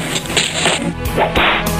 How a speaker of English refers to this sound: When you're slapped, you'll take it and like it.